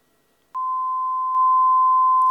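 A steady, high-pitched electronic beep begins after a brief silence and holds continuously at one pitch, stepping up slightly in loudness partway through, with no talking.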